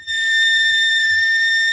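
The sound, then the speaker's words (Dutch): A laptop fan, recorded the previous afternoon, gives off a steady, piercing high-pitched whistle like a kettle, one sustained tone with faint overtones, loud, running unbroken over a low background rumble. “Nou, dit is meer een fluitketel.”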